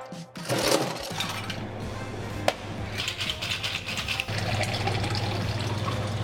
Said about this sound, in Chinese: 今天做的是台南家乡味。那第一个加的是来自于台南芒果汁，再来是甘蔗汁，加点冰块。